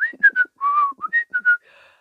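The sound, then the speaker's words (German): A bright, cheerful whistled tune of short warbling notes in quick bursts, whistled while hanging up laundry, rising and falling in pitch, with one longer held note mid-phrase and a soft trailing tone at the end. “Schnell rief ich hinaus zum Weihnachtsmann, der fröhlich seine Wäsche aufhing und pfeifte und sang und total komplett ignorierte, dass über ihm wieder eine dicke Wolke schwebte.”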